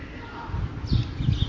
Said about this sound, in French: recouvert d'oliviers centenaires. C'est magnifique et il y a des oiseaux qui chantent. J'espère que tu vas pouvoir les entendre.